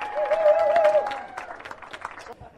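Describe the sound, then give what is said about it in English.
An audience applauds in response to a question about whether they have not listened to an audio-described movie in a movie theater, with a dense, steady patter of many hands clapping. It is loudest at first, then thins and fades out over the last second, with a faint steady tone in the first second. “If you have not gone to a movie theater and listened to audio described movie, please applaud.”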